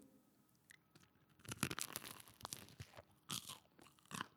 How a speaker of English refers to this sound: So you guys are going to get the first review of me eating this jam. And if you hate listening to people chew, skip this part. so without further ado, here we go.